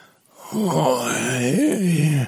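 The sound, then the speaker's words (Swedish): A voice imitates how someone sounded on a phone call: a long, drawn-out pained groan, wavering up and down in pitch for about two seconds, fairly loud, with no words spoken. “Alltså ja, igår ringde jag, nu kommer jag ihåg, jag ringde dig igår och så undrade vad, du lät så här,”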